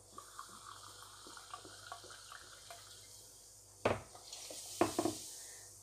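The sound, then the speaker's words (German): Quiet fizzing and crackling as a carbonated liquid is poured into a cup for cake batter and foams, with scattered tiny pops and two louder splashy gushes near the end. “Man hört richtig, wie das schäumt.”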